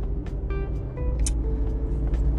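Steady low rumble of a car's interior while driving and trying to switch lanes, a constant road and engine drone with faint tonal hums on top and no one talking.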